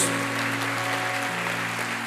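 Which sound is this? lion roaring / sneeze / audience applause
audience applause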